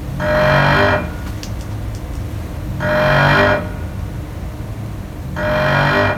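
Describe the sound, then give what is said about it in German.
Three loud, roughly one-second bursts of hissing, slightly tonal air from a VT2E railcar's air suspension bellows balancing the vehicle between the bellows, evenly spaced over a quiet low hum, with no voices. “Damit das Fahrzeug nicht schief hängt, wenn zum Beispiel alle Fahrgäste auf der rechten Seite sitzen, gleicht das Fahrzeug zwischen den Luftbälgen hin und her aus.”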